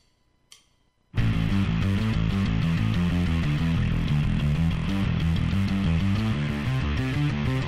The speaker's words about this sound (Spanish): Bueno, acá tenemos un bajo totalmente con flanger y no sé si un octavador, pero un sonido de distorsión se nota, ¿no?